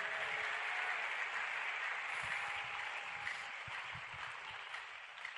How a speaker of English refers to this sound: Can I get a clap offering to Jesus right now?